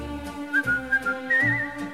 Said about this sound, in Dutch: Maar op deze melodie ben ik stapeldol. Of fluit je het zo,